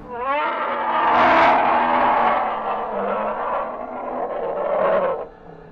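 A bear's long, drawn-out cry heard far off, a hoarse wailing call that swells and wavers for about five seconds before cutting off, not snarling or aggressive but a cry of suffering and pain, with no voices around it.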